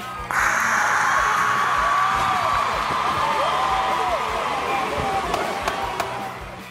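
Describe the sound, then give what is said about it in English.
A loud studio audience erupts suddenly into wild cheering and whooping, a dense sustained roar of many voices that holds steady for several seconds before cutting off. “No, let's just turn it over to the studio audience, and the crowd goes wild.”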